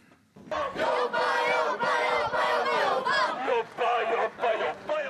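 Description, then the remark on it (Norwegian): Sandnes Ulf home supporters chant loudly in unison as they march in to the club's first ever Eliteserien match, against Viking in Sandnes, Rogaland, voices rising and falling in rhythmic phrases with short breaks between lines, sustained and energetic throughout. “Hjemmesupporterne var klare med oppskriften da de toget inn til tidenes første eliteseriekamp i Sandnes.”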